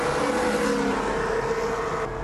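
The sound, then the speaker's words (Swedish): A Formula 1 race car engine roars at high revs during the Japanese Grand Prix, a steady, loud, buzzing whine held throughout with slight pitch wavering, as if heard trackside or from an onboard feed. “Klippet här kommer inte överraskande från Viasat Motor. Japans Grand Prix avgjordes i helgen som gick.”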